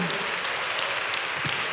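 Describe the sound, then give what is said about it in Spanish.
A crowd claps together in a steady, dense burst of applause for Christ. The sound is fairly loud and sustained throughout, with no pause in the clapping and no clear voices. “Dale un aplauso a Cristo, hermano.”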